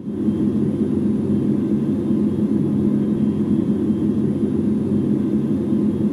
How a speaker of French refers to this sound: Ah, ça, par exemple, c'est 12 heures de son d'ambiance de la Station Spatiale Internationale. oui, il fait aussi dans le réaliste, le gars.